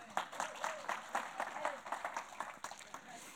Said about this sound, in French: Ouais, on les applaudit.